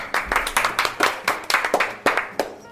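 Brief applause: a burst of brisk hand claps in a steady, fairly even rhythm, a dozen or so sharp slaps over a few seconds, with no talking.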